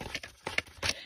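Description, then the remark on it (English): Crisp rustling of notebook paper pages being flipped through, in three or four quick papery bursts with short pauses between, fairly soft and with no voices. “you may hear me flipping through the pages”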